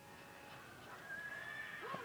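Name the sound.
horse neighing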